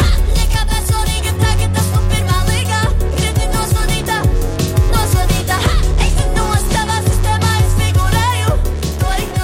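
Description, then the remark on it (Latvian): A newly released pop single plays continuously, full and loud, with a steady thumping bass line, layered instruments and a melodic sung vocal running over the top throughout. “Jaunākais singls skan šādi.”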